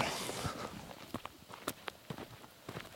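Footsteps crunch along a trail at a steady walking pace on the way to an observation site, each step a sharp transient over a soft outdoor hiss, with no talking.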